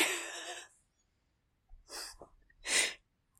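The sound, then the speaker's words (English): A person imitates hard, heaving breaths: three forceful, airy huffs with pauses between them, fairly loud. It imitates how babies start breathing really hard, also done when stressed to stop from crying. “like the thing that babies do when they like just start breathing really hard oh, Yeah.”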